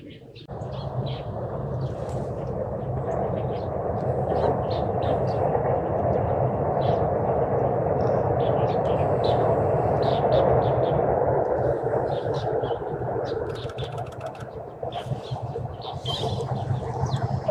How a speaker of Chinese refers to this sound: 这是一只白头鹎。